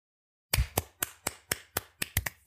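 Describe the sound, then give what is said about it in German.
After a moment of silence, hands clap in a quick, steady rhythm, around nine sharp, fairly crisp claps in recognition of a marathon run, with no talking. “Entschuldigung, wollen wir klatschen?”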